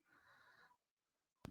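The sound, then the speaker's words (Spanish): A soft, drawn-in breath, a brief pause, then one sudden, loud sneeze burst at the end. No one speaks. “Salud.”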